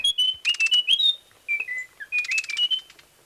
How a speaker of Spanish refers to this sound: El trino del cucarachero de Munchique forma parte del Banco de Sonidos de Aves Colombianas, recopilado por el Instituto von Humboldt y la Universidad de Cornell.